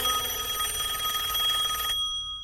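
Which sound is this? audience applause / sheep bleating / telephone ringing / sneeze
telephone ringing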